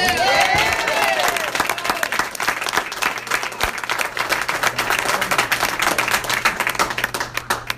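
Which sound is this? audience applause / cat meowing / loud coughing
audience applause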